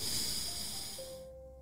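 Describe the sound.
A voice imitates a long, deep sniffing inhale: a single noisy, airy breath drawn in for over a second before stopping abruptly. It imitates a man who has caught a scent and draws in breath again.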